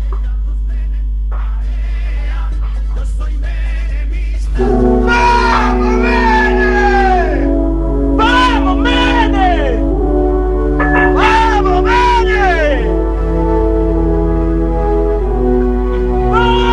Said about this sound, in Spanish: Las imágenes eran trabajadores gritando, vamos Menem, con eso alcanzaba. Esta es esta publicidad en realidad de 1995